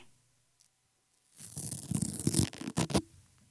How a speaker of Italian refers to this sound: Questo invece è uh, un anziano di uh, eh, 79 anni sì. che si sta togliendo il papillon. Perché i papillon hanno anche lo strip Sì, qualche papillon ha anche lo strip strap. Sai anche dirmi il colore del papillon? Rosso.